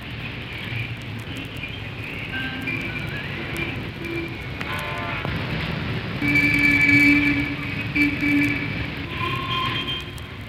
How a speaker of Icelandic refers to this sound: Tökum til dæmis umferðina. Hlustu þið bara á hana.